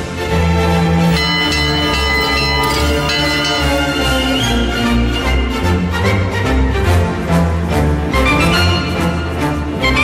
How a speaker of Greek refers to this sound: Πετάξτε λουλούδια, χαρμόσυνα νέα, οι καμπάνες να βαράνε.